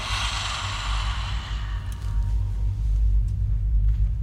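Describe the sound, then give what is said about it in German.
A forced, pressed exhalation pushes out in one long breathy rush over the first couple of seconds, then fades, leaving a steady low rumble underneath. “Ein gepresstes Ausatmen, wie bei einem Läufer vor dem Start.”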